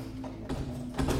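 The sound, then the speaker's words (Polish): A few dull footsteps followed by sharp mechanical clicks and clunks of locks being turned on a door as someone comes to open it, with no voices present. “Po chwili usłyszałem kroki i dźwięk przekręcanych zamków.”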